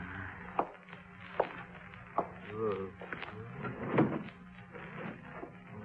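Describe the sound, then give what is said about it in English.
The top right drawer of a bureau slides open with a wooden scrape, surrounded by several sharp knocks and clicks spaced about a second apart, moderately loud over a faint murmur. “Look in the top right drawer of the bureau.”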